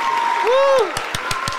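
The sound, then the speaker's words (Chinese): A clapping sound effect: a quick run of about six sharp, evenly spaced claps. Before them comes a steady tone that bends into a rising and falling pitch glide. “你们的 RCP 里面不是都有那个拍手效果音吗？”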